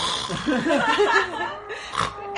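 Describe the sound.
Someone imitates a sleeping person's snoring with a series of rough, snorting, pig-like grunts over about two seconds, ending in a sharper breathy snort; it sounds playful and almost laughing.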